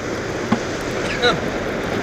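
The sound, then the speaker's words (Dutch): A small boat is pushed off into the water by hand: steady sloshing and splashing, with a brief knock partway through and a short scrape-like burst a moment later. “Ja, ik zal de boot afduwen.”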